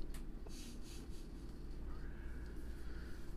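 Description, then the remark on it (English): Soft, scratchy strokes of a pencil sketching a character design sheet on paper, a series of short rubbing bursts in an irregular rhythm, quiet, with no voices. “What are you doing with the pencils? I'm just doing these pencils.”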